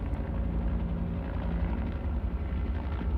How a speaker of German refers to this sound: Ich war es, der an unserem Hubschrauber die Türen schloss. Hauptmann B ließ unsere Maschine an und wir hoben ab.